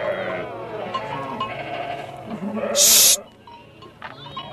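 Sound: sheep bleating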